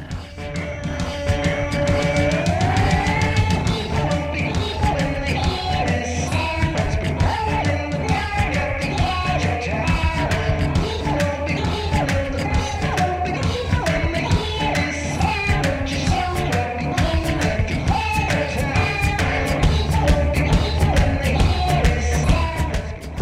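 A progressive rock track from 2007, blending progressive rock with electronic music, plays on the radio show Sound Opinions, loud and steady throughout, with a driving beat, dense layered instruments and high, yelping vocal sounds woven in. No one speaks over it.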